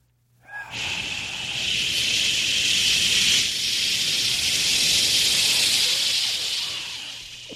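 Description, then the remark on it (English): People hiss loudly and steadily into microphones, a harsh, airy sustained hiss lasting about seven seconds with a brief dip midway, as if someone pauses to breathe. No talking. “Everybody, when he goes turn up, everyone make like hissing sound into the mic.”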